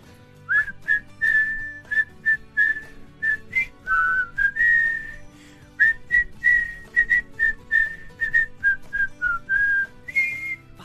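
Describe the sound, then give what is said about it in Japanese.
People whistle the main theme of the Christmas song Jingle Bells together, a lively tune of short, rhythmic notes with brief pauses between phrases, clear with no talking. “テーマを一緒に吹いていただく主旋律を吹いていただく形で、はい、ちょっとじゃあワンテーマだけ音程があるので、い、いですか。”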